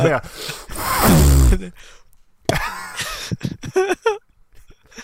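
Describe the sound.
A voice makes a loud, raspy, squeaking fart imitation, mimicking the sound of explosive diarrhea, for about a second and a half, then breaks into animated talking and a few sharp mouth clicks.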